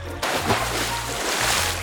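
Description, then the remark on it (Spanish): Water splashes and sloshes steadily after a sudden start as a boy, having taken off his clothes, enters a river, a continuous churning with a low rumble underneath and no voices. “le dijo a su amo que se quitara la ropa y entrara al río. El chico lo hizo”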